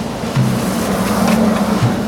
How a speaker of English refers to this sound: Mr. Bart pressed on the accelerator, and the bus rumbled with new speed.